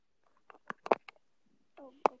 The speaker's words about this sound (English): Can you stop tapping with your wand? I thought Just... you could hear it. Just put it down.